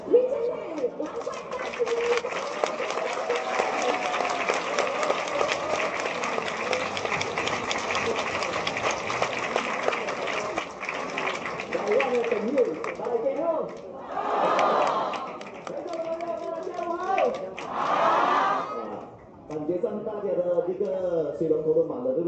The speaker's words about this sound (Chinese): 那让我们用台湾爱家人的热情，掌声来欢迎我们的。